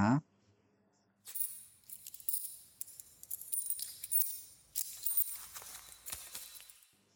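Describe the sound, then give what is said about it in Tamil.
After a soft thump, loose five- and ten-rupee coins clink and jingle for several seconds as a hand rummages through them in a bag, with bright irregular bursts of rattling. “அந்த சில்லற சத்தம் சாமிக்கிட்ட வேண்டுறப்ப கேட்குற கோயில் மணி சத்தம் மாதிரி அவன் காதலை கேட்டுச்சு அப்படியே கையில் அள்ளி எடுத்தான் அஞ்சு பத்து ரூபா காயின்ஸ்”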